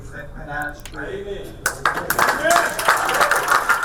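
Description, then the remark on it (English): A voice talks briefly, then a crowd breaks into steady, dense clapping that continues to the end, with some voices mixed in underneath. “I don't hear those people clapping and go, wow, listen to all those racists backing up a racist.”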